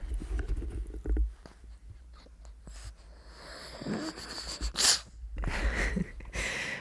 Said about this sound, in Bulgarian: На здраве, Гошко! Той обича да киха, когато е емоционален. Сега се прозява и киха и си млещи.